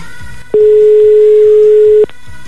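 A single steady telephone busy tone, the called line engaged, sounds clearly for about a second and a half, a flat electronic hum over faint rhythmic thumping in the background.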